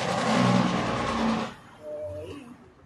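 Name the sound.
car speeding past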